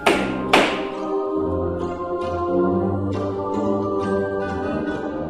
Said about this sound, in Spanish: Se hincó y empezó a martillar.